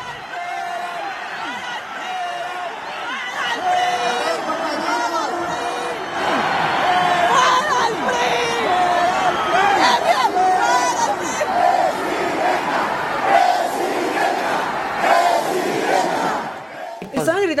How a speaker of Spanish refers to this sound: vean cómo estaban abucheando a este hombre que ahorita les explico quién es.